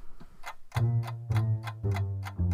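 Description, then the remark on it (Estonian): A clock ticks at a steady, even pace, about two ticks per second, in the morning, with low humming musical tones swelling underneath. No one speaks. “on hommikune aeg ja tiksub kell”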